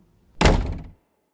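A wardrobe door is pushed shut with a single solid thunk, fairly loud, its brief rumble dying away within about half a second, followed by quiet.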